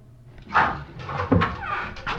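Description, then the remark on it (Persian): A door opens with a short creak and a couple of dull wooden knocks and bumps as two people come in, fairly quiet and with no one speaking. “در باز شد”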